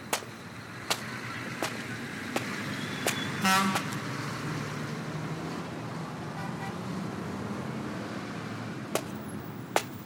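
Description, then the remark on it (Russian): Steady road noise from cars passing on a highway deep in the night, around one o'clock, a continuous low rumble, with a brief tonal honk near the middle and a few sharp clicks. No one speaks. “глубокая ночь, автострада. Раз в пару минут пролетают автомобили, но в остальном совсем тихо, безлюдно, как и положено часу ночи.”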